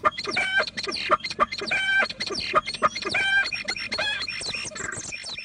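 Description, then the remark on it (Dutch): A starling mimics a hen's clucking, giving repeated bursts of harmonic cackling notes in an uneven rhythm, fairly loud, with no one speaking over it. “Tja, maar is dit nu niet een kip? Eh, dat zou je inderdaad denken, en het is ook opnieuw goed nagedaan, maar het is een spreeuw.”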